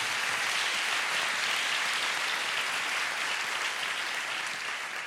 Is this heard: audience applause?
yes